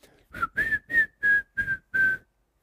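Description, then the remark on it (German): A man whistles a cheerful folk tune in six short, bright phrases with clear pauses between them, fairly loud, while patting aftershave onto his face; no talking over it. “Man kann doch nicht im Frühtau zu Berge pfeifen.”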